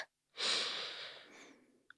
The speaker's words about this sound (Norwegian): Men i tillegg så trigger du vagusnerven, som gjør at du blir rolig. Så du puster inn på fire.